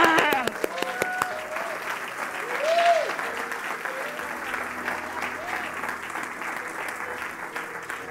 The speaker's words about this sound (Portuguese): Não aplauda assim, não, irmão. Aplauda.